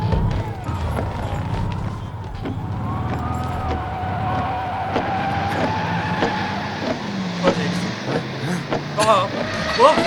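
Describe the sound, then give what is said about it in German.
A car brakes and skids on snow, a steady roar of engine and sliding tires with a wavering squeal, punctuated by sharp knocks and bumps that grow louder toward the end. “Ich hab Gas! Bremsen auf der Schneehaufen!”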